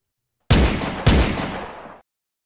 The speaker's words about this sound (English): They told me later there was a third shot, but I didn't hear it.